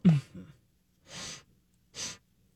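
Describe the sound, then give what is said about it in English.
A brief throaty vocal sound, then two sharp, airy sniffles spaced about a second apart, fairly quiet, with no talking. “just, just a, little a little, sniffle.”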